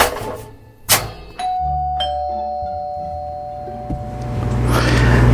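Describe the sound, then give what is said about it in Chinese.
A doorbell chimes twice, a sharp ding followed by a sustained ringing tone, after a soft thump, with low rumbling noise underneath and no voices. “那这里久拢无人来开门啊，真正实在吼。”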